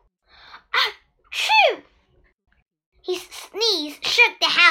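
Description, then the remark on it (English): A voice acts out a string of exaggerated sneezes for the old wolf in the Three Little Pigs story: short sharp bursts with breathy build-ups, a brief pause, then several more in quick succession, loud. “Once again, the old wolf began to sneeze and sneeze. Achoo!”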